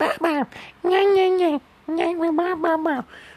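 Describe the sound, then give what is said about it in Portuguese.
High-pitched babbling of babies at a daycare in short, sing-song bursts: a quick syllable, a long drawn-out coo, then a run of chattering sounds, fairly loud, one baby trying to talk to another as infants vocalize back and forth. “Que tá um bebê tentando falar com o outro ali.”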